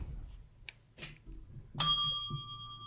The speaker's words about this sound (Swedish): Det var bättre pling än förra gången tycker jag. Ja, ja men det har jag övat en gång. Uppvärmning är viktigt har du värmt upp din klocka? Polerat den?